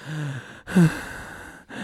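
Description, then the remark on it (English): Heavy, labored breaths, a long exhale followed by a sharper gasping intake, with no talking, just strained breathing over a faint steady hum. “I'm like, this motherfucker's having a hard time breathing, chilling.”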